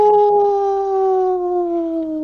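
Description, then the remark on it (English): A person imitates a wolf howl: one sustained, loud vocal tone that slowly glides downward over about two seconds, with no talking. “Um actually I'm going to I'm going to howl.”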